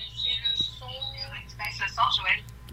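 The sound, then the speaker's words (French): A voice comes through a thin, tinny phone line during a call, the speaker's own speech doubled by a faint delayed echo of itself over a low steady hum. “Je m'entends en double. Ça fait de l'écho.”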